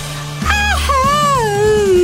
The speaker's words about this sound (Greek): Όχι ουρλιαχτό τεράστιο. Ένα τέτοιο.